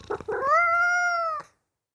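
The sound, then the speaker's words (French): A cat lets out one long, drawn-out meow, starting with a few short chirpy notes and then holding a steady, nasal tone before cutting off. It is fairly loud, with no one talking. “Oh un chat, regarde maman, il est trop mignon.”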